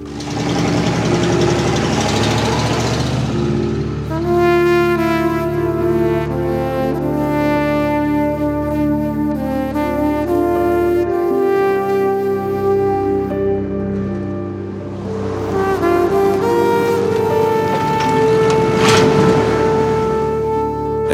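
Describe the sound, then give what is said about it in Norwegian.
A van engine runs steadily, a low droning hum with a knocking undertone, its pitch shifting slightly as the van is started and driven slowly down toward a gate, with no voices. “Før jeg tok heisen ned, starta varebilen og kjørte rolig ned mot porten.”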